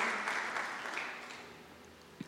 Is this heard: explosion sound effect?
no